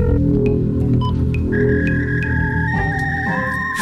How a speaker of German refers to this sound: Fax. Das gute alte Fax aus dem öffentlichen Dienst. Es ist da äh, mittlerweile abgeschafft. Hier ist es gelandet.